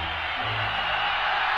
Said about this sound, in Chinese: 人群中响起了欢呼声和掌声。